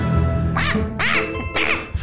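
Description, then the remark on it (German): A man's voice imitates a raven, giving three harsh, nasal croaks about half a second apart, fairly loud over a low, steady background drone. “Den habe ich übrigens eingesprochen, den Raben.”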